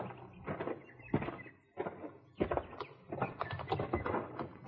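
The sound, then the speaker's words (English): A horse being saddled: irregular rustling, shifting leather and soft clunks of tack in uneven bursts, with a few heavier thumps and no talking. “Saddling your horse.”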